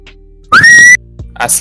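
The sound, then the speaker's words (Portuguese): A person gives a single loud whistle to call everyone. It sweeps quickly upward and then holds a steady high note for about half a second before cutting off, followed by brief rustling noise. “Isso foi meu assobio de chamando todos os cornos.”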